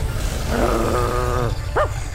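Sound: dog growling and barking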